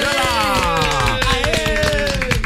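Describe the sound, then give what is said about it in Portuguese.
Audience applause welcoming a guest, a dense run of overlapping claps lasting a couple of seconds at steady loudness, with voices or music carrying on over it. “Seja bem-vinda, uma salva de palmas.”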